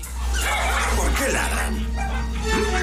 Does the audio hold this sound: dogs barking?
yes